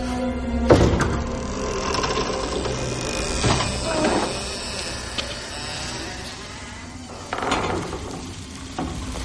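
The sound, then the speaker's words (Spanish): A heavy crypt door painted with a sickle symbol creaks slowly open, a long grinding, ratcheting drag broken by a few louder clunks and scrapes, with no voices. “La abre lentamente y descubre varios cadáveres.”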